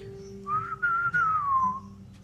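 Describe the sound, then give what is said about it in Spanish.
A mouse whistles with joy: a single bright, cheerful whistle glides up and then slowly falls, lasting over a second, clear over a faint steady hum, with no talking. “Estiró el hocico en el aire y silbó de alegría.”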